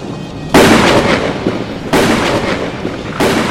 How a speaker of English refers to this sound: The right arm of Cronus raises toward the sky as lightning leaps from the rhino beetle horn and acts as a gauntlet for the combined mech. A dark cloud forms above the kaiju, and lightning begins to rain down.